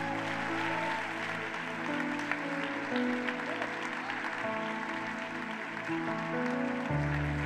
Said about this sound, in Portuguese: Você consegue dar um aplauso a Jesus?